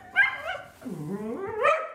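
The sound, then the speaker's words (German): A small Jack Russell terrier named Nacho whines and yelps excitedly as it races down the stairs to go for a walk, a few high-pitched, drawn-out cries rising and falling over two seconds, with no talking. “So hört es sich an, wenn der Hund Nacho die Treppe herunterrast zum Spazierengehen.”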